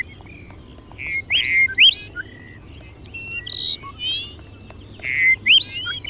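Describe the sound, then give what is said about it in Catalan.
A Dupont's lark sings short phrases of thin, rising whistled notes, repeated three times with pauses between, fairly clear over a low steady background rumble. Nobody speaks. “se distingeixen pel cant, que té un cant molt característic. Doncs eh, aquest cant característic, nosaltres el que farem és escoltar-lo.”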